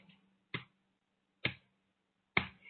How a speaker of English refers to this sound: Gently now, taking these quiet claps to the edges of your shoulder. You're clapping the edges of your shoulder, the edges of your chest